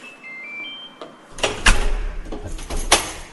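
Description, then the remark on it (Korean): The front door of a home opens with a latch click as someone answers a visitor, followed by a series of sharp clunks and rattles as it swings and settles. A faint high tone sounds briefly beforehand. “읽던 책을 접어두고 현관으로 나가 문을 열었다.”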